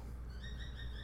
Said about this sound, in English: You hear the birds in the background? They really like that one.